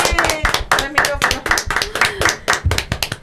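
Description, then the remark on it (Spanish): Brisk applause from a small group in a studio as a farewell at the end of the Radio Lab Chile radio program, a dense run of sharp hand claps fairly loud and steady for a few seconds, with no one speaking over it. “Nos despedimos entonces con un aplauso, chiquillos.”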